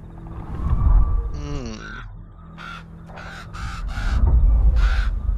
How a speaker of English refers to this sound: Here's what happens. And Bert, uh, with your insight check, the raven seems to be uh, trying to warn you